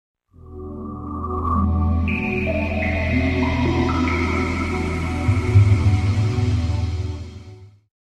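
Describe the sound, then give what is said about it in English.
The Sega Dreamcast console startup sound, created by composer Ryuichi Sakamoto: a warm synthesized chord swells in, with bright tones stepping upward, holds for several seconds and fades away. It plays alone, with no voices. “That's the sound of a Sega Dreamcast starting up.”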